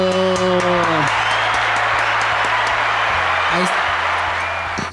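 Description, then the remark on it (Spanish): An audience applauds and cheers loudly and continuously for about five seconds, a dense wash of clapping with a few voiced whoops rising over it near the start. “el aplauso de las público”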